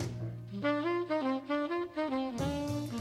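A jazz saxophone plays a smooth, stepwise melody with rich harmonics over a steady low bass note, loud and close, with no voices.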